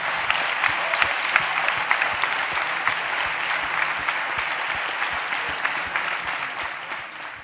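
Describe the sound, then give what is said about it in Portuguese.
Steady applause from a crowd, given to the Lord Jesus at a preacher's call, fills the whole stretch, a dense wash of many hands clapping at an even loudness, tapering slightly at the very end, with no voices over it. “Dá uma salva de palmas, Senhor Jesus.”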